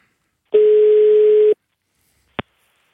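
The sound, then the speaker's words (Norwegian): A single one-second ringback tone from a phone line as a call is placed, a steady, clean hum, then silence and a sharp click as the call is picked up. No one speaks. “så vi tar og ringer henne.”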